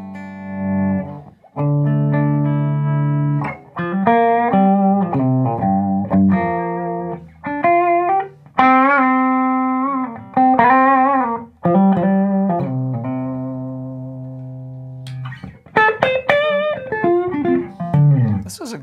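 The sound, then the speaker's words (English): An unplugged new SE electric guitar plays alone, fairly loud, with ringing sustained notes and quick melodic runs that bend and slide, pausing briefly between phrases. “That baby's ringing.”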